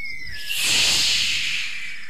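A snake's hiss swells in as a long, breathy rush of sustained noise, fairly loud, holding steady for over a second before slowly fading out. No voices accompany it.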